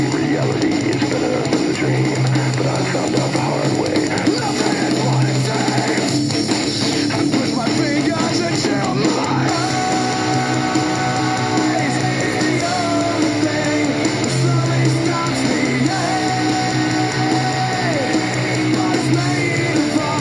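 Loud, dense heavy metal plays throughout, with distorted guitars, pounding drums and harsh screamed vocals forming a wall of sound that never lets up.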